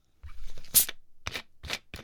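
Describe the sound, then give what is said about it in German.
A carbonated water bottle is twisted open with a sharp, bright hiss of escaping gas, followed by several short, crackly bursts of fizzing as the cap loosens. “Es zischte.”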